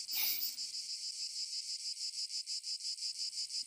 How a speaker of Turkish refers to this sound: Ağustos böceği eşini bulabilmek için yaz mevsimi boyunca ağlar,